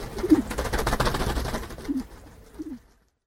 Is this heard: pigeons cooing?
yes